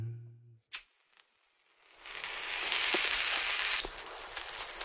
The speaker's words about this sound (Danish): Jeg kunne egentlig godt tænke mig en lille fræk lyd som overgang. Hvad har du derovre på dit uh, Casio keyboard?